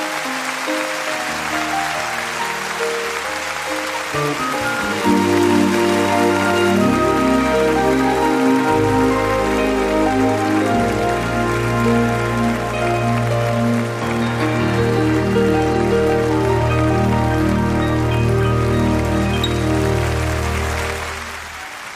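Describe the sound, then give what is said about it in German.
Sustained audience applause, a dense and steady wash of clapping that holds at an even, loud level for about twenty seconds before fading at the end, with no one speaking. “Applaus”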